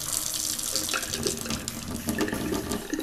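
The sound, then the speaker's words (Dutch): Hot water streams steadily from a tap into a sink, a continuous splashing rush with small shifts in pitch as the flow hits the basin, fairly loud with no talking. “Heet water. Misschien ga ik een wasbak boem doen.”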